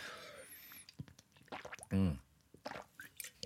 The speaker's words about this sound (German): Da muss ich erstmal einen Schluck nehmen hier.